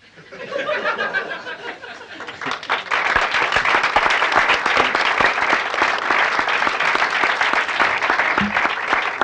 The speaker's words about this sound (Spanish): Muchas gracias a todos eh, por estos eh, aplausos y esta presencia.